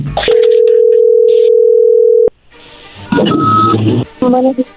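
A telephone ringback tone while placing a call to promote a chocolate company's chocolates sounds once as a steady, low-pitched buzz lasting about two seconds, then cuts off, followed by muffled voices and line noise.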